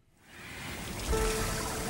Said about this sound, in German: Ein Flüsschen, ein kleines Boot, darin ein Mann.